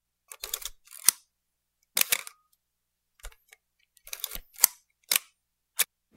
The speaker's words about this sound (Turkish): Benim bu kullandığım fotoğraf makinesi 1968 model. Tamamen mekanik enerjiyle çalışan bir fotoğraf makinesi. Yani şöyle söyleyeyim bir otomatik saat gibi içerisinde tamamen yaylardan, mekanik dişlerden oluşan bir fotoğraf makinesi.